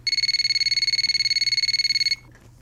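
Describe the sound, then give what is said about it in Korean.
An electronic mobile phone ringtone for an incoming call trills for about two seconds, a fast, even pulsing of two bright high-pitched tones, loud and steady, then cuts off abruptly leaving faint background hum. “그때였습니다. 그녀에게서 전화가 왔습니다.”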